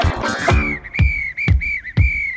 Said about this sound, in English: Okay, blow my whistle.